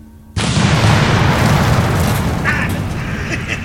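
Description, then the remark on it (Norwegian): A car explodes with a sudden, loud bang after a brief quiet moment, followed by a heavy, sustained roaring rumble that continues to the end. “For en smell!”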